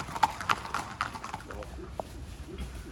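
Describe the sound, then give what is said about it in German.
Horse hooves clip-clop in a steady, fairly quick rhythm, sharp knocks at first then continuing more softly, a few racehorses coming out of a forest after trotting and heading to the racetrack in the early morning dark, over a faint outdoor background. “Jetzt kommen die Pferde aus dem Wald, wo sie getrabt sind und es geht zur Rennbahn.”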